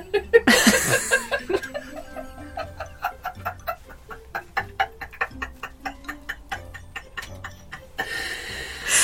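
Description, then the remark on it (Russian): A clock ticks in a steady, even rhythm for several seconds, crisp, with a short burst of noisy sound at the start and a hiss near the end. “Ворона улетела, часы затикали.”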